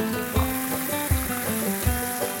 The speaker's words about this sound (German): Ich gieße jetzt mal einen Schluck ein und probiere mal. Beautiful yellow color.